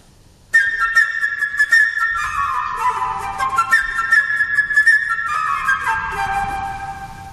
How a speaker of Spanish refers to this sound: En esta historia cada personaje está representado por un motivo musical determinado y por un instrumento diferente. El pájaro por la flauta.